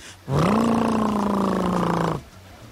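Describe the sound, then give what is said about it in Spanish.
A voice imitates a motorcycle engine with one loud, sustained buzzing drone lasting about two seconds, its pitch rising slightly at the start and sagging toward the end before stopping abruptly. “En un manicomio llega el inspector para hacer una revisión y en eso pasa un loco imitando una moto.”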